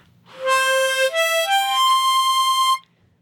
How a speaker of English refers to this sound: so this is the sound of the harmonica